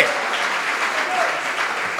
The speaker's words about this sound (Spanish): Aquí están los salvados. A ver, los salvados, denle un aplauso fuerte al Señor.